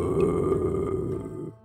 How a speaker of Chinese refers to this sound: 那老头的呼噜声更响了。